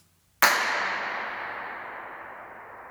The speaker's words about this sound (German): Also bin ich in dieser Tiefgarage gewesen und habe einen Klatscher abgegeben, das war dieser hier.